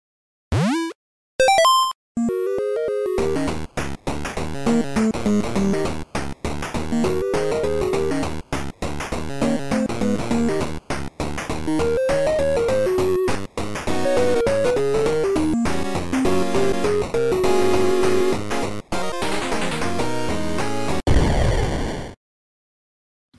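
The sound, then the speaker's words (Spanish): A loud, produced jingle for a trivia segment opens with sweeping whooshes and bursts, then busy, layered music with a bright melody plays for about twenty seconds before cutting off abruptly. No one speaks. “después de haber escuchado eh, la cortina de la trivia”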